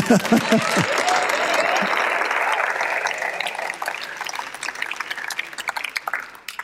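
A crowd claps steadily in a dense, sustained wash of applause that gradually thins into scattered individual claps toward the end, with a little murmuring at the start.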